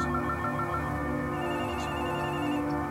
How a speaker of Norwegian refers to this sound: Nå håper det ringer det umiddelbart fire-fem telefoner her.